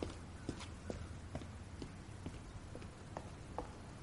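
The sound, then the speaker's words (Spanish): Quick footsteps of a person running through the end of an alley along a hard surface, each step a sharp, evenly spaced click at a brisk running pace, with no voices over them. “llega corriendo hasta él por el final del callejón.”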